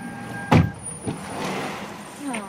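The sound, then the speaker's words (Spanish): A door is pushed shut with one solid thud, followed a moment later by a softer knock as it settles, then quiet room noise and a faint voice near the end. “Vale, apártate un poco. Quiero cerrar la puerta.”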